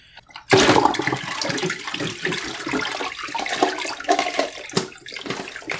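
Water suddenly gushes on and keeps rushing steadily from a faucet, a loud, hissing splash that fills the whole stretch with no voices.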